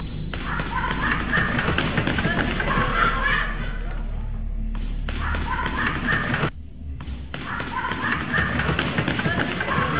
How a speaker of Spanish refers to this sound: Pues, Yo sabes cómo lo siento, como que alguien, como que va corriendo alguien en un pasillo.